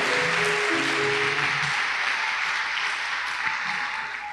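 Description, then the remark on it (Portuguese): An audience at a church service applauds for Jesus steadily, a dense wash of many hands clapping at once, sustained and fairly loud, tapering slightly at the end, with faint tonal hum underneath early on. “Quem crê pode dar um aplauso para Jesus.”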